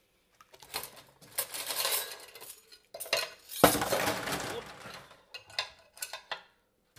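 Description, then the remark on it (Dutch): Metal cutlery clinks and rattles against itself in running water as it is washed by hand in a sink, a busy stream of bright jangling clatters with a louder splashing clash midway, no talking. “En nu zijn we begonnen aan het bestek”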